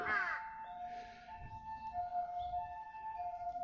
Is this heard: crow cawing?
yes